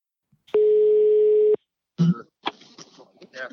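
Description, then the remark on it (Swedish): A single steady one-second telephone ringing tone on an outgoing call to an aviation history expert at the Swedish Air Force Museum in Linköping, heard clearly as if over the line, followed shortly by a voice answering and starting to speak. “Så att vi visste ju inte det här riktigt, får vi väl lov att säga, så att vi ringde ju upp någon som faktiskt hade väldigt bra koll på just det här med flyghistoria.”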